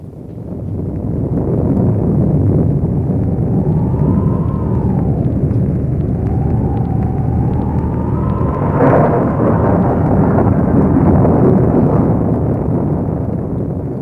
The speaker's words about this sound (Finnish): Nousi myrsky ja raju ilma. Ukkonen jyrisi ja meri myllersi.